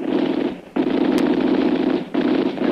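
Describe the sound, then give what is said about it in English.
Loud machine gun fire rattles in three long, rapid bursts separated by two brief pauses, a dense, harsh crackle with no voices. “And then there's the machine gunner at the other end.”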